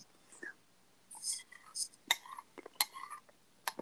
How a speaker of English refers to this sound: What are you eating? I'm sorry, I made some ice cream. Yeah, I can hear you scraping your bowl.